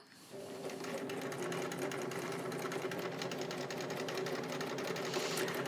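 A sewing machine stitches around the outside edge of the piece, running with a fast, even mechanical hum and rapid rhythmic ticking that starts abruptly and continues without pause. No voices are present.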